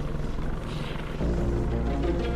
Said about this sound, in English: It almost makes you forget about the risk. Until you hear the drone of two helicopters. They're air ambulances.